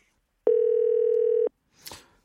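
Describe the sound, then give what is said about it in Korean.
A single steady telephone ringback tone sounds clearly for about a second as a call is placed to a middle school student in Seongnam, Gyeonggi Province, a flat electronic hum with harmonics, followed by a short rustling noise before the line falls quiet. “전화 걸어주세요.”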